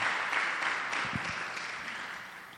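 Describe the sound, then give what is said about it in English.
A church audience claps for the Lord in a steady wash of clapping, dense and continuous, fairly loud, with a few low thumps partway through. “Clap for the Lord.”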